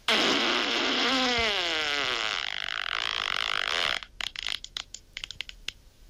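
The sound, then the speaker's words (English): A long, loud, wet fart blasts for about four seconds with a rippling, bubbly texture that slides in pitch, then breaks into a scatter of short sputtering, splattery pops before stopping. “one wasn't a fart. That one turned into something else now you are fart connoisseurs.”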